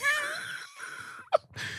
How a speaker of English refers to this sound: snoring.